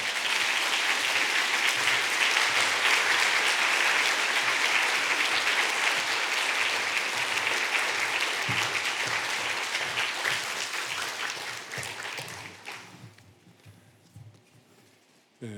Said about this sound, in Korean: 우리 한번 박수로 환영하겠습니다.